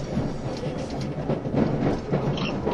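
An E351 series Super Azusa 18 limited express train, running from Matsumoto to Shinjuku, rumbles steadily along the rails, a dense low roar with faint rhythmic clatter from the wheels and a brief higher whine near the end, with no voices.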